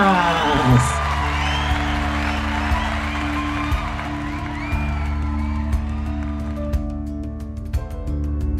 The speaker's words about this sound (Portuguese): Palmas.